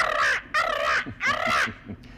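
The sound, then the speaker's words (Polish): A parrot squawks three times in quick succession, each call loud, harsh and raspy, with short gaps between and a fainter trailing note at the end. “A skrzecz sobie, skrzecz.”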